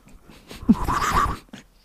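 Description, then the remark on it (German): A voice imitates a bird in flight with one strained, warbling squawk lasting about half a second, moderately loud, framed by faint breathy sounds before and after. “Das war jetzt wahrscheinlich richtige Drecksgeräusche. Genau so hört sich ein, hört sich ein Vogel, Vogel an.”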